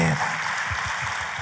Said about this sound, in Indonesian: Tepuk tangannya yang paling meriah buat Tuhan.